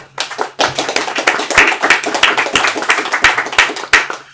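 A burst of applause from a small group at a libertarian talk, welcoming the guest speaker, dense overlapping claps with a few sharper, louder hand claps standing out in a fairly regular rhythm, steady for several seconds.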